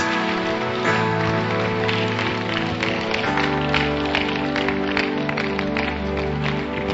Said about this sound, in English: Clap your hands and stand to your feet.